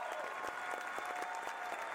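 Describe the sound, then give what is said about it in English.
A large crowd gives a candidate for district attorney a standing ovation. The applause is steady, with dense overlapping clapping that goes on without pause at a fairly even level, and no one speaks. “And the whole crowd just spontaneously uh, gave her a standing ovation.”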